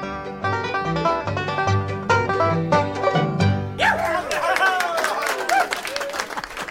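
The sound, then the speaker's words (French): A rowdy evening party of a ship's crew on the pack ice: banjo music and voices singing together, then a burst of loud cheering and shouting from the group, with sled dogs barking and yelping in the commotion. “Le soir, on sort les banjos, on chante. Bref, on fait un peu la fête.”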